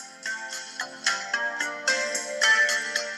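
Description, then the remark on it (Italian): A bright, chiming melody from a music video as its playback is started with the VoiceOver keyboard command, its notes striking in a steady rhythm at moderate volume, with no voices over it. “Ecco, questo è il video che voglio scaricare. Con VO, spazio, faccio partire la riproduzione.”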